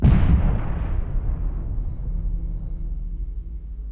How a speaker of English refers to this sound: And then during the first evening there, you start hearing the planes flying and um, start hearing the bombs dropping, and you think, oh, okay, actually, something's really going on here. These are big bombs that are dropping